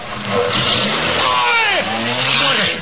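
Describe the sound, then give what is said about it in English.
A car with registration number GR5607 roars and revs as it speeds off, its pitch sweeping up and down over a few seconds, loud, with a hint of tire noise and voices in the background. “Get the number. Give the number of that car.”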